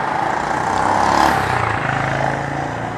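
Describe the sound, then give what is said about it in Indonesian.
Steady engine drone of many motorcycles passing in the street in Yogyakarta (Jogja), Indonesia, around 5:30 to 6 a.m. as it gets light, swelling slightly around the middle, with continuous traffic rumble underneath and no voices. “malah suara motor di mana mana ini jam 6 pagi jam setengah 6 lah di Jogja kan kebetulan sudah sudah mulai terang tuh jam segini jadi kita bisa ngobrol oke lanjut gila motor banyak banget ini”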